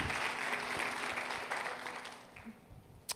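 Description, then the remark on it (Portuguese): An audience applauds in praise of Jesus, a dense wash of many hands clapping at once, steady and loud at first, then thinning and fading toward the end with a few scattered claps. “Aplaude a Jesus então por isso.”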